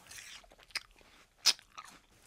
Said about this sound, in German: nochmal, wenn du einen Apfel schmatzend isst, dann sind es 66,3 Dezibel.